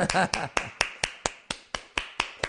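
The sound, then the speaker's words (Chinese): A single person claps about ten times in a quick, steady rhythm, each clap sharp and crisp, applauding himself after someone in the room applauded him. A brief voice is heard at the very start. “哎呀，这屋里边有俩人，有一个人给我鼓掌了，那我也得给我鼓一下。”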